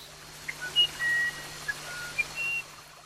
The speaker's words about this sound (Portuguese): Olha que cachoeira maravilhosa. Vamos continuar nossa conversa sentado aqui nessas pedras, contemplando essa paisagem maravilhosa e essa sinfonia linda entre a água, os pássaros